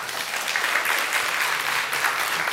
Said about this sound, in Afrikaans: Geef hulle lekker aan 'n klap toe.